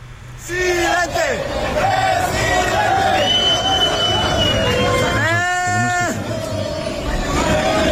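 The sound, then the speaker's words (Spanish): A large crowd at the Estadio Azteca on Saturday chants loudly and continuously at Cuauhtémoc Blanco, many voices calling "Presidente" together in drawn-out calls over a steady roar of noise that fills the whole stretch. “Cuauhtémoc Blanco andaba ahí en el, en el estadio y mira que le gritaron.”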